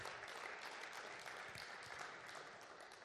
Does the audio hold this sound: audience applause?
yes